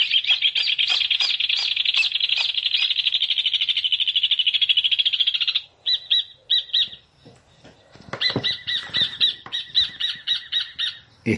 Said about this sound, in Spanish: Estamos escuchando al hornerito, el hornero.